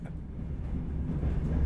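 A steady, low rumble of a moving train heard from inside the carriage, deep and continuous with a slight swell in loudness, and no voices.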